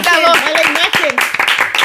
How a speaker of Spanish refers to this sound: Un aplauso. Bravo.